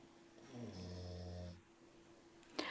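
A pet dog lets out one drawn-out, rumbling snore lasting about a second, soft, followed by quiet and a brief click near the end.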